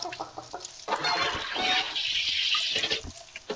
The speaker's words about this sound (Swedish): Men det var alltså du som satte igång en Sodastream.